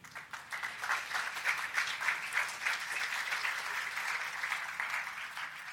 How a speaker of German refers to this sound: Wir sind Ihnen, wir sind äh, dem Bundeskriminalamt und auch den Landeskriminalämtern, die hier mit uns wirklich eng kooperieren, enorm dankbar. Vielleicht auch einmal einen Applaus an Sie.